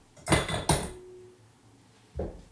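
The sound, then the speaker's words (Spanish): Two ice cubes clink into a stemmed glass for a limoncello spritz: two sharp, bright knocks in quick succession with a short ringing tail, then a duller third clink a moment later. No one speaks. “Agárrate dos hielos. Dos, güey. A ver. Sin romper la copa, digo.”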